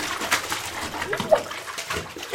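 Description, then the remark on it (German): Water sloshing and splashing in a bathtub as a man holds a woman under the water, with irregular bursts of churning and a sharper splash near the middle, moderately loud. “Sie runzelte verständnislos die Stirn und wollte gerade etwas fragen, da drückte er sie unter Wasser.”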